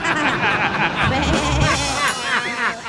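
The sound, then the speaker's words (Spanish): A person's voice imitates a sheep, speaking in a shaky, quavering bleat throughout, its pitch wobbling up and down in a steady vibrato. “llega el niño del DJ y le pregunta al DJ, papá, ¿por qué me dicen oveja en la escuela?”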